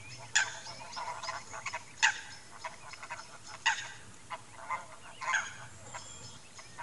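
A Eurasian coot gives a series of sharp, abrupt calls, about five short honking bursts at irregular intervals, clear against a quiet, faintly humming background with no talking.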